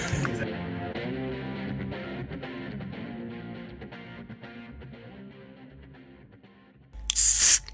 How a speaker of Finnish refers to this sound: Sihautellaan, sihautellaan.